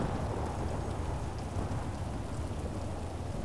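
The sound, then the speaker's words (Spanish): Heavy rain from a summer thunderstorm pours steadily, a dense hiss of drops over a deep, continuous low rumble, with no voices and no break for the whole stretch. “Nada es más importante ahora que esta tormenta de verano.”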